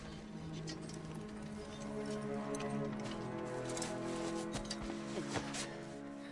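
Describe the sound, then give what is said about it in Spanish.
Horse hooves pound along steadily in quick, uneven beats on a ride toward Minas Tirith, set against a swelling orchestral music bed that partly covers them; no one speaks. “Tres días a caballo bajo el vuelo de los Nazgûl.”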